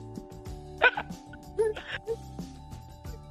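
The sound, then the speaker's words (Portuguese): A dog barks a few times in short, sharp bursts, with irregular pauses between barks over a low, steady background hum. “sacanagem com o cachorro, cara. O nome do cachorro é Eusébio.”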